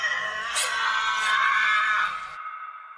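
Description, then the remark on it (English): A Tasmanian devil lets out a harsh, raspy, blood-curdling scream, loud and sustained for about two seconds before cutting off abruptly, leaving only faint background noise. “It's about the size of a little dog, looks like a large black rat, and it has a blood curdling scream.”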